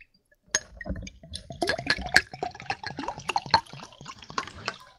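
Water is poured into a glass for ASMR, a steady splashing, gurgling stream with a few faint glassy clinks, lasting about four seconds with no talking.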